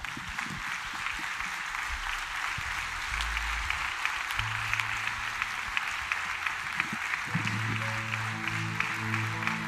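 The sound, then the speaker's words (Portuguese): A standing audience applauds the Lord steadily, dense clapping filling the whole stretch at an even, fairly loud level, with sustained low organ or keyboard tones sounding underneath. “Há uma linda salva de palmas ao Senhor.”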